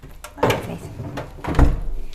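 A refrigerator door is handled as an apple is put back into the fridge: a few soft clunks and rustles, then a firmer low thud as it shuts, with a faint hum lingering afterward.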